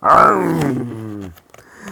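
A single loud lion roar, from a lion coming out of a bush, that starts strong and slowly sinks in pitch into a rumbling growl over about a second, then trails off into quiet.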